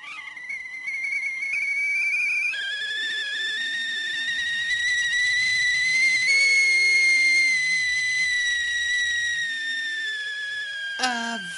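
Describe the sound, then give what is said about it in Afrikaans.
A kettle whistles steadily and shrilly for about eleven seconds as water boils and white steam escapes from its spout, its piercing tone rising slightly in pitch and wavering, with a faint hiss of steam beneath before it cuts off abruptly. “Op daardie oomblik sien jy 'n soort wit gas wat by die opening of tuit van die ketel uitkom.”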